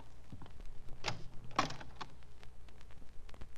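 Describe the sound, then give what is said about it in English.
A closet door with a mirror on it is pulled open with two sharp knocks of the latch and hinge, followed by softer rattles and shuffling against a steady low hum. “There's a mirror on the door of that closet to your right. Open it and see how you've improved.”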